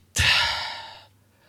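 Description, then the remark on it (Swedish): One deep, deliberate breath, taken as mindful breathing to stay calm, fairly loud: it starts abruptly with a strong rush of air and then tapers off over about a second, with no talking. “Tänk på medveten andning. Andas.”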